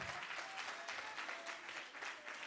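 Steady audience applause, a dense wash of many hands clapping at an even, sustained level throughout, with no voices standing out above it.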